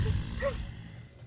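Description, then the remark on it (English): A person imitates a deep, menacing demonic growl with their voice, a low raspy rumble held for about a second before tapering off. “…'s going re- to try and recreate it.”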